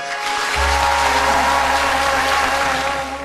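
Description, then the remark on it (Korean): An audience breaks into sustained applause, a dense, even wash of clapping that starts abruptly after a brief pause and holds steady at a strong level over a low hum. “선생님한테는 박수 한번 보내주세요.”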